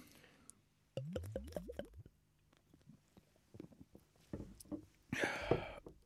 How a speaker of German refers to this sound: Lass uns anstoßen und endlich Bier trinken.